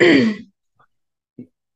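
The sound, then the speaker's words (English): One loud throat-clearing cough with a harsh rasp that drops in pitch, then a couple of faint, short throaty sounds amid near silence. “still got that cough, huh?”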